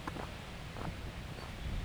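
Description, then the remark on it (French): Soft, continuous, faint rustling of leaves on the other side of a field, with a few light crackles scattered through a steady, airy hiss. No voices. “C'est un frémissement de feuilles.”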